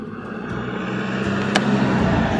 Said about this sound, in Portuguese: Mais um carro passando.